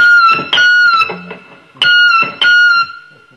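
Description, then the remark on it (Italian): Seagull calls imitated on an electric guitar with effects: a few loud, bright, wavering notes that bend and slide, coming in short repeated bursts with brief gaps, with no voices. “questo è difficile, ve lo dico io, sono i gabbiani.”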